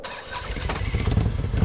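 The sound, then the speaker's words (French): A Harley-Davidson 1800 cc touring motorcycle, the brand's biggest model, cranks and fires up, its deep rumble building into a loud, throbbing idle, with no voices. “C'est la plus grosse moto de chez Harley, donc c'est vraiment ce qu'on appelle une version touring.”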